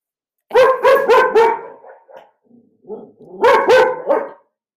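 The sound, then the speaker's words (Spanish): Dogs bark at people passing by outside in two rapid bursts of four or five loud barks each, separated by a brief lull with softer yips and whines. “bueno, ustedes lo escuchan, están, son sanos, porque hay gente que va pasando por afuera.”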